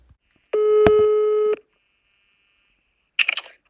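A single steady telephone tone with a bright harmonic buzz lasts about a second as a call is placed to a longtime member of the theatre society Toneelvereniging Eensgezindheid, followed by silence and then a short, crackly burst of sound as the line connects.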